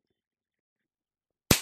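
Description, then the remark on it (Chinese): After a long silence, a single sharp spank of a hand on buttocks cracks out, loud and crisp, with a brief fading tail. “屁股被爸爸打得好开心啊！”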